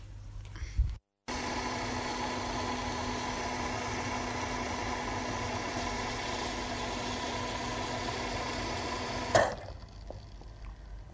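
A coffee machine brews a cup with a steady, loud mechanical drone and a constant buzzing pitch for about eight seconds, then cuts off abruptly with a small clunk, leaving quiet.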